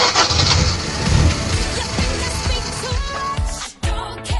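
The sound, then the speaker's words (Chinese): A car engine starts and runs loudly, a rough, rumbling roar with rapid low chugging pulses, dipping briefly near the end before surging back. No one speaks. “OK，那我们的汽车已经发动，还没有上车的乘客抓紧时间，我们马上发车，绝对不等客啊！”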